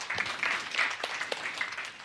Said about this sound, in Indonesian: Kita beri tepuk tangan buat Tuhan Yesus.